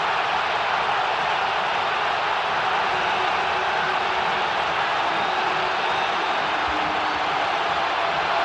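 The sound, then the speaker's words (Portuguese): A huge crowd of Flamengo fans at the Maracanã stadium roars after a goal by Bruno Henrique, a dense, steady wash of cheering that holds at full loudness throughout without any break or announcer voice. “Enlouquece a torcida do Flamengo no Maracanã.”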